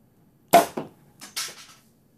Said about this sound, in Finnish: pullo posahti auki Riikan toimesta